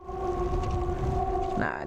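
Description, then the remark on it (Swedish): A civil defense siren holds one long, steady tone with a faint harmonic above it, sounding over rumbling wind noise before wavering slightly near the end. “Oj, jag hör det jättetydligt. Jättetydligt hör jag det. Lång ton.”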